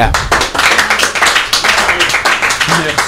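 An audience applauds steadily for about three seconds, many hands clapping into a dense, crackling wash of sharp taps that stays fairly loud and even throughout.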